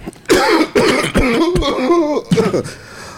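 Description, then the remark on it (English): A loud coughing fit: about five harsh, hacking coughs in quick succession with raspy, throaty breaths between them, no talking. “Holy, aka Cough Gang.”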